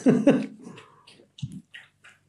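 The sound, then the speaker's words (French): A dog laps water: a couple of loud, wet slurps, then softer, irregular laps trailing off, with no one talking. “Alors ce que vous entendez là, c'est mon chien qui est en train de boire.”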